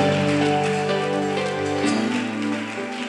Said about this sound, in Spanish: Vamos, aplauda al rey.